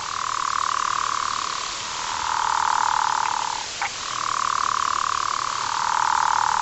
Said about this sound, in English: So that's two gopher frogs calling underwater simultaneously. One's going first, and then there's a second one right there. You can also hear that's a leopard frog. he snuck in there somehow.